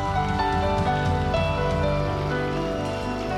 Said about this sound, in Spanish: Vamos, denle un fuerte aplauso.